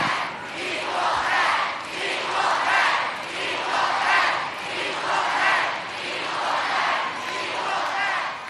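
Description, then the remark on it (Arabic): A huge stadium crowd chants in unison, demanding equal pay for the players of the US women's national soccer team, 2019 World Cup winners, as the US Soccer Federation president speaks; a rhythmic, swelling roar repeating roughly every second and a half, loud and sustained from start to finish. “مطالبات الجمهور الحاضر بأجور عادلة للاعبات لم تكن أول مرة يسمعها رئيس الاتحاد الأمريكي لكرة القدم”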